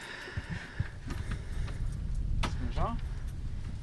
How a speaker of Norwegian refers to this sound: åpner opp en sånn liten nøkkelboks. Må ikke røpe koden, da.